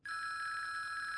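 A mobile phone rings with a loud, bright electronic trill, rapidly pulsing, heard alone without any talking.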